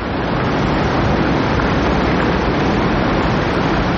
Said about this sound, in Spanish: Cae por unas enormes cataratas. Desde gran altura la cruz se hunde en las aguas. Grandes saltos de agua se precipitan a la garganta.